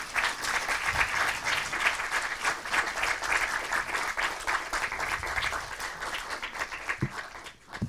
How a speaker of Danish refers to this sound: Lad os give dem en kæmpe stor hånd.